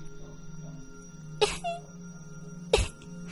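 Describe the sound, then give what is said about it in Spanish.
Two short, sharp coughs about a second apart, fairly loud, with a quiet steady hum underneath and no talking. “insistió en su tos para darle al menos remordimientos.”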